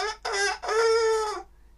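A rooster crows once, loud: two short bursts followed by a long, drawn-out final note that fades abruptly. No one speaks.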